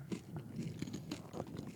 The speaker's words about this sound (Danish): Jeg skal kun høre chips, der knaser.